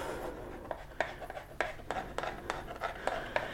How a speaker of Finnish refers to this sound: ja sitten me tarvitaan kuivattua tai tuoretta minttua, kuivattua kaksi teilusikkaa, tuoretta, kaksi ruokalusikkaa tai enemmän mä silppuun nyt tässä tota, tuoretta minttuu.